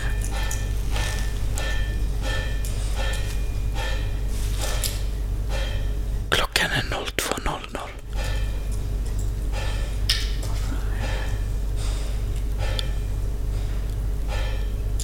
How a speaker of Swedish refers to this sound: Var det där en klocka? Nej, det låter som någon som bankar mot metall.